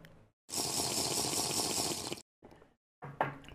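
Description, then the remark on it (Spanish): Someone takes a sip of water: a steady liquid rush lasting under two seconds, then a couple of short, soft mouth and swallowing sounds. “Voy a tomar un traguito de agua.”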